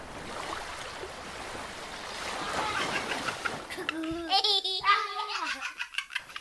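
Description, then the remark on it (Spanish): Sea waves wash in with a steady, broad rushing roar for a few seconds, then a child's high giggling and playful voice rise over the fading surf. “Dice, hay tres cosas en la vida que nunca te cansas de mirar. Una es el mar,”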